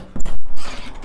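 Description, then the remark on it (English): A door is opened: a short burst of mechanical clunking and creaking from the latch and hinges, with a brief pause midway, lasting about a second, no voices. “So, well, you can probably guess, I've just opened the door.”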